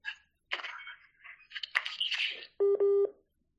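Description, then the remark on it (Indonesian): Two short, steady electronic phone tones sound back to back near the end, loud and clear, following a stretch of muffled, garbled noise. “Itu eh, eh, eh tolong tolong mati eh tolong telepon gue lagi ya ini gue kayak nggak ada suara orang-orangnya gue matiin dulu”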